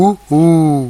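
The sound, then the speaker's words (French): A human voice imitates a two-note signal call: a short higher hoot, a brief pause, then a longer, lower sustained hoot that slowly fades. “C'est un signal, un appel sur deux notes, haute et basse, que j'ai déjà entendu jadis.”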